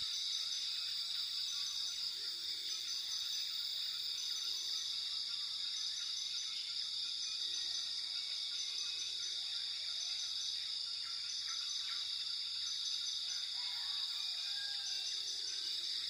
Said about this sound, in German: Kannst du die Geräusche der Natur wahrnehmen? Höre einmal genau hin und nimm den Klang des Regenwaldes wahr. Was kannst du hören?